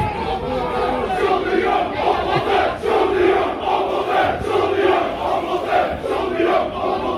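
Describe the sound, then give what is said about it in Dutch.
A large crowd of football supporters chants loudly and continuously after a match, voices blending into a rhythmic, rowdy roar that swells and pulses throughout, with no break in the noise. “waren de supporters na de wedstrijd.”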